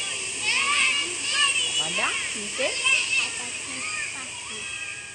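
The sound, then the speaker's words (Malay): Several children play and call out at once, their high-pitched shrieks and chatter rising and falling over a constant hiss of background noise, with a brief spoken question mixed in. “Oh, hari budak-budak. Kalau tengah bermain.”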